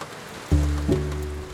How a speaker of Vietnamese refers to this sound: À, tiếng ok, tiếng mưa rơi. Chị có biết những cái video ASMR kiểu này cũng nhiều trên mạng á.